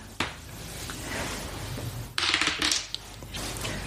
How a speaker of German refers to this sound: Ja, die Würfelfragen. Also mhm. du darfst drei Fragen würfeln. Also, also jetzt das erste Mal bitte.